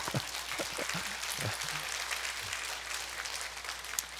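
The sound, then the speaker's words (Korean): An audience applauds with steady, dense clapping that fills the whole clip, with a few brief low voice sounds near the start before the clapping carries on evenly. “아니 꼭 이렇게 해야 박수가 나오고 얼굴이 밝아지시고”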